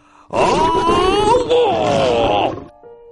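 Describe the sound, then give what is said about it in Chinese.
A tiger gives one loud, sustained roar lasting a little over two seconds, its rough, growling tone wavering up and down before cutting off. No one talks over it. “就在这时，老虎站了起来，他发出了有力的咆哮。”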